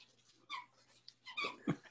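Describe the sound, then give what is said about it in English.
Several short, high squeaks from a squeaky toy a dog has brought into the room come in quick, uneven bursts with soft snuffling between them, fairly quiet, with no one talking. “you're gonna hear some squeaking. My dog's brought a toy in the room.”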